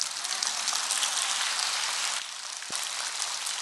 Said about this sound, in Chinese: 嗯，谢谢，第二次鼓掌。